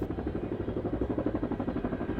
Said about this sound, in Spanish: que puso atención y escuchó cómo se acercaba un helicóptero.